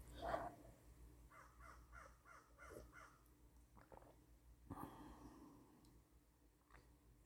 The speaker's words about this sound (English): I hope that crow isn't too annoying on the recording.